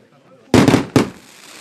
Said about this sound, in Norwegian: Mer fyrverkeri etter ny VM-suksess for Tora Berger. To gull og en sølvmedalje er fasit så langt. I går kveld ble hun og Emil Hegle Svendsen feira.